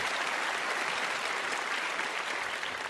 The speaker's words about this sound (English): has served golly um, can you uh, 40 years wow on uh, for the city of saugatuck and um, we got to give him a big round of applause because i'll tell you